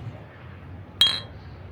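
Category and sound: household object, beer glasses clinking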